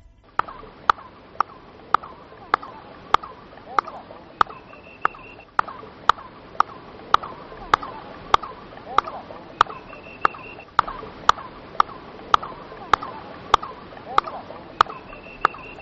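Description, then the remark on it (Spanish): Sharp handclaps at a stone pyramid repeat at a steady, quick rhythm, about two dozen in all, each followed by a descending chirp-like echo that sounds like a bird calling back. No one speaks. “vamos a escuchar esa palmada e inmediatamente después de la palmada el eco que se escucha parece un pájaro, un pájaro que empieza a cantar.”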